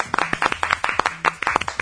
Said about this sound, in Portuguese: Chegou o momento mais esperado do programa. Rapaz, palmas.